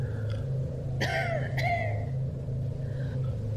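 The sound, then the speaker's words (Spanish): Two short, raspy coughs from a woman, about half a second apart, coming from the back patio, over a steady low hum, with no talking. “Al mismo tiempo, la tos de una mujer pareció colarse desde el patio de atrás.”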